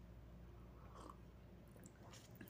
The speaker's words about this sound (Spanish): Permítanme eh, tomarme un cafecito y continúo, ¿sí? Un sorbo nada más.